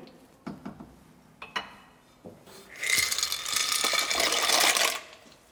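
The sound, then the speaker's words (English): Small hard pieces of dry macaroni clatter and tick into a pot of boiling milk and water with a pinch of salt, then a loud, steady bubbling hiss rises for a couple of seconds before easing off. No one speaks. “Now the milk and water is boiling and I added a pinch of salt, I'll add my macaroni.”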